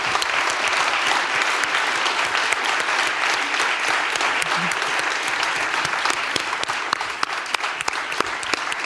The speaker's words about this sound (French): Donc je vous demande d'applaudir, s'il vous plaît, le sens de la visite, le faussaire et dans le vrai,